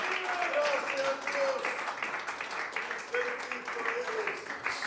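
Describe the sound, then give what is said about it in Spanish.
An audience applauds the Lord during worship, a dense, continuous wash of clapping that holds at an even, fairly loud level throughout, with voices crying out over it. “Puede aplaudirle con todas las fuerzas de su corazón y decirle, Señor, gracias.”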